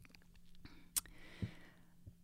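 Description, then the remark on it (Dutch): A quiet sip of hot ginger tea: a soft click, a faint airy slurp lasting under a second, then a light thud like a cup being set down, with no talking. “Even een slokje van mijn lekker gembertheetje heb ik hier.”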